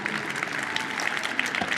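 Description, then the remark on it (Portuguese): An audience applauds the band after a worship song, many hands clapping in a dense, continuous patter that holds at an even, moderate loudness from start to finish, with no voices standing out. “Palmas mais uma vez, gente, para a banda.”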